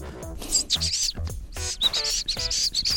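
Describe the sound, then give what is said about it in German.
A person whistles a high, thin imitation of a goldcrest's closing song flourish in quick, repeated bursts of twittering notes, clear, with a voice talking briefly in between. “Dann sagen wir mal, herzlichen Dank für heute und Sie verabschieden sich wahrscheinlich mit dem Schlussschnörkel eines Wintergoldhähnchens, oder?”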